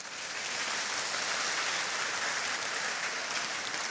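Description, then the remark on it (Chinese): An audience applauds steadily, a dense, even wash of many hands clapping that holds at a constant loudness for the full four seconds, with no voices over it. “虽然你们鼓掌，但我还是很遗憾的告诉你们，湖北还没有发现过。”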